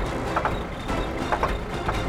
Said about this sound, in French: Le moteur fait des bruits comme s'il allait rendre ses pistons.